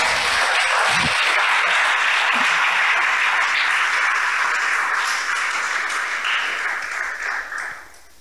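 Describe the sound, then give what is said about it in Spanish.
A crowd applauds loudly and steadily for God, a dense wash of many clapping hands, holding strong for several seconds before tapering off at the end. “Si es para Dios, déselo fuerte.”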